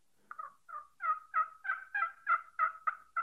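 A Ridge Runner turkey game call from Nor'easter Game Calls is blown in a rapid series of about ten gobbling yelps, steady and fairly loud, with no voices over it.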